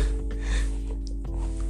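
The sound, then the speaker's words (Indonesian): A stomach growls: a low, gurgling rumble drones steadily for a couple of seconds, fairly quiet, with a slight wobble in pitch midway and no talking over it. “perut gue bunyi anjing aduh beneran nih”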